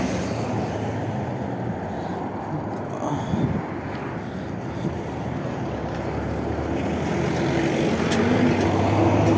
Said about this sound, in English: Hold on, I'm, I'm trying to cross the street. Hold on. And there's a lot of cars. And I'm trying not to get ran over.